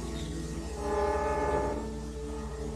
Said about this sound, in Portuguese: In this experiment, 16 audio filters each transmit the intensity recorded at 16 different levels of pitch. Oh. The computer then replays this recording with 16 appropriate notes on an electronic harmonica. Now, crossing Saturn's ring